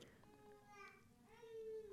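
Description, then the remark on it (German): A baby boy fusses and grumbles in a few drawn-out, whiny vocal sounds that rise and fall, fairly quiet, with no clear adult talk over it. “dein Baby hat laut geschrien gerade”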